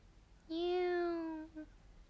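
A kitten rubbing its body against a woman's feet gives one drawn-out, steady meow lasting about a second, then a tiny clipped follow-up sound, clear against a quiet background with no talking.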